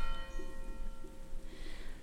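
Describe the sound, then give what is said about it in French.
A church bell tolls one o'clock, one sustained ringing tone that hangs in the air over a low background rumble with no one talking. “les cloches sonnent. Une heure.”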